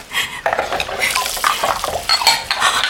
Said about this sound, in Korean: 효진은 쓰레기 봉투를 꺼내와 냄비와 밥그릇과 접시를 몽땅 그 안에 털어넣었다.